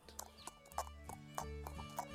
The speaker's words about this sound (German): Am nächsten Morgen, den Wagen hatte ich bereits mit den Pferden bespannt, kam mein Herr, wir fuhren los zum Pfaffen aufs Land.